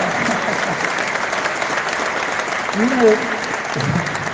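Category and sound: crowd, applause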